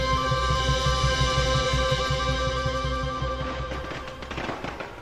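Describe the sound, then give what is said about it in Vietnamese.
Firecrackers crackle and pop for Vietnamese Lunar New Year (Tết) in light drizzle, in a rapid, continuous string over a steady musical drone, with sharper, denser bursts breaking out near the end. “Tiếng pháo nổ giòn tan khói pháo thơm vấn vít trong cơn mưa bụi lây phây”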